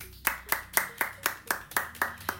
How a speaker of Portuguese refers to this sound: Estou aplaudindo com os pés, porque não, não, não consigo.